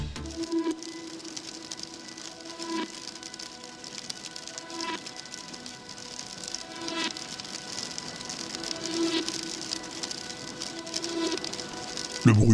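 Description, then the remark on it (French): Steady rain pattering outdoors in the Faroe Islands with a broad hiss of wind, continuous, with occasional louder gusts and drips breaking through the wash of sound. “la pluie, du vent.”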